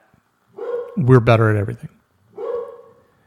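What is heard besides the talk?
dog barking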